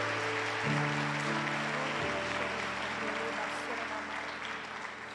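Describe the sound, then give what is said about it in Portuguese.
Steady, dense applause from a crowd for the Lord fills the whole stretch, with sustained keyboard chords droning underneath and shifting pitch twice, the clapping fading slightly toward the end. “Se é para aplaudir o Senhor, então aplaude para valer, porque Ele é digno.”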